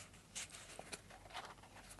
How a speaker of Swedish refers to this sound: Liksom, här har jag ett papper. Jag har ett papper här som jag tänker vika.